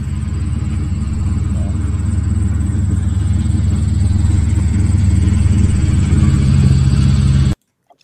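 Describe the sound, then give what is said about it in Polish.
Several cars, including a police car and a truck, draw near a lighthouse with a loud, steady rumble of engines and road noise that fills the scene continuously, then cuts off abruptly just before the end. “słyszysz do latarni zbliżające się samochody.”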